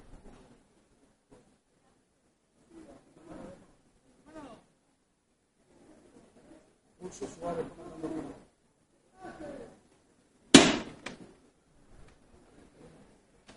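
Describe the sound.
A sharp, loud metallic knock rings out once from the knocker call signalling the bearers of a procession float depicting Saint Peter's denial and tears, briefly echoing, amid scattered murmuring voices and crowd noise in an open street.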